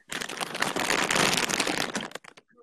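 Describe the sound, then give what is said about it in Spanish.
A hand rummages inside a crinkly snack bag, producing about two seconds of dense crackling and rustling that tapers into a few scattered crinkles, with no talking. “estés masticando fuerte, se oye cómo metes tu mano a la bolsa.”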